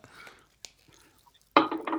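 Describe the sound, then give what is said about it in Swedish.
Dishes and cutlery being washed at a sink: a faint rustle and a sharp clink, a quiet pause, then a loud, sustained rush of clattering and splashing. “du kan inte ställa dig och diska nu när vi spelar”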